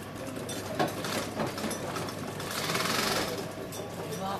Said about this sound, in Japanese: 今ね職人さんとあの参加者の方が作っていらっしゃるのは水玉模様のあそうですね、ねはい、すごくポップな柄の布で今ミシンでこう縫い合わせてますねシンが黒光りしてますよ